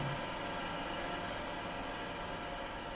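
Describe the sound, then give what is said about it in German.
A cinema film projector motor, switched on to start the main feature at 24 frames per second with its lamp lit at 90 amperes, whirs steadily with a dense mechanical hum and hiss, fairly loud, running continuously on its own without any voices. “Gleich Richter 1 einschalten bitte, die Lampe zünden bitte, Richtstromstärke 90 Ampere und Motor an.”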